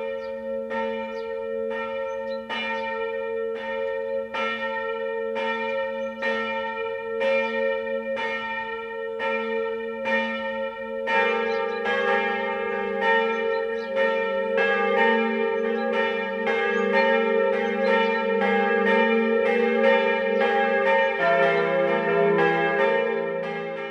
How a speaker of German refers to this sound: Es ist 12 Uhr. Das Mittagsläuten kommt heute aus Raubling in Oberbayern.